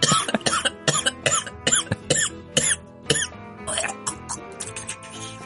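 A close, loud coughing fit: a rapid string of harsh, hacking coughs in quick rhythmic bursts, a dozen or more, with no talking.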